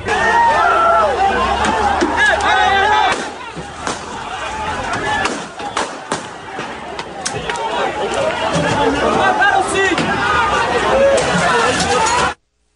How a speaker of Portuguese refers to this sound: um trecho da fala do, do, do Cid Gomes antes de ser alvejado e também o som dos tiros no meio dessa confusão.